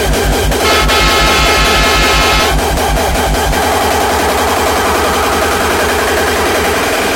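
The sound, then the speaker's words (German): A loud, chaotic subscriber alert sound effect: a harsh distorted blast with heavy pulsing bass throughout and a bright buzzing layer during the first couple of seconds. No one speaks. “Dann mache ich noch einen, Alter. Subscriber Alarm.”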